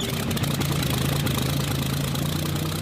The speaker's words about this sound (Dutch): Als allerlaatste springt Lucas in zijn vliegtuig en start nog net op tijd de motor.